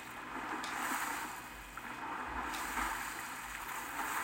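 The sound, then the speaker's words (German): A video game character swims along a river: a steady wash of rushing water with soft splashes and brief swishes, continuous, with no voices. “Und ich kann den Fluss entlang schwimmen.”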